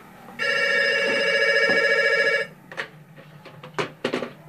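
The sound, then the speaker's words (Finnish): A telephone rings once in a loud, steady electronic trill lasting about two seconds, followed by a few short clattering knocks like a handset being picked up. “Jälleen omituinen soittaja.”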